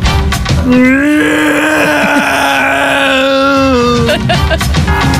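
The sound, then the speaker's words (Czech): A voice imitates a mosquito flying around the head at night with one sustained, nasal, droning hum lasting about three and a half seconds, loud, with breathy vocal sounds around it. “Ten, co lítá v noci u mojí hlavy, to je...”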